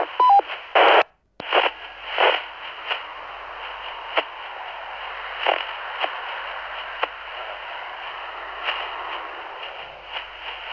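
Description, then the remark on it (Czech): Street traffic noise, recorded from a sidewalk as a test through the microphone of a Baofeng radio, comes through as a thin, band-limited hiss with occasional swells and clicks, opening with a few short beeping tones and a brief dropout. No one talks. “To byla zkouška záznamu ruchu z ulice, jestli bude slyšet přes ten stěrný mikrofon.”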